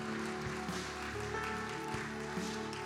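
An audience applauds steadily, a dense, continuous wash of clapping that holds at an even level throughout, with sustained musical tones droning underneath.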